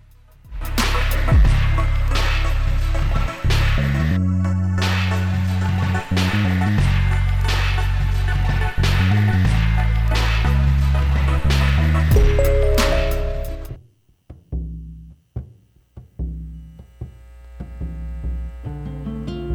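A pop-rock song plays loudly with a steady drumbeat and full band, then suddenly thins out to a sparser, punchy rhythmic section near the end.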